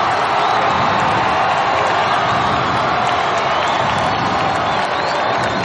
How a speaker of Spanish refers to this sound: En el ring, el rival sale acompañado de su equipo. Es un corpulento negro que luce guantes rojos. Lleva un pantalón blanco y corto de boxeo donde se lee Lennox. Tess y Terry aplauden la llegada del contrincante.